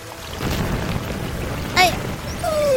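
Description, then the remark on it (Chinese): Huge ocean waves crash in a continuous, heavy roar with a deep rumbling low end, swelling louder toward the end, while a brief high chirping tone cuts through near the close. “这时候，阵阵的巨浪打来。”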